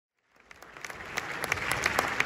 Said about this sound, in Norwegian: Ja, det var en høflig applaus. Vi har faktisk et lite lydopptak av det.